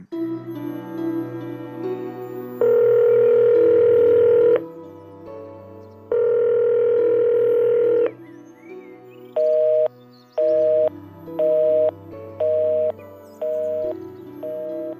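An outgoing phone call to a home: two long, steady electronic rings, then five short beeps at an even pace, over a soft sustained musical hum. No one speaks.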